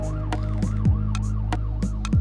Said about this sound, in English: In and out of consciousness, sirens screamed.